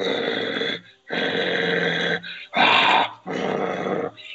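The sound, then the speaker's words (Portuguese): A person imitates a dog's growl with their voice, four rough, rasping bursts of about a second each, separated by short gaps, fairly loud. “Cara, talvez por toda a minha descrição parece muito um cachorro.”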